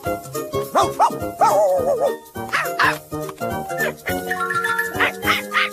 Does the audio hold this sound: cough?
no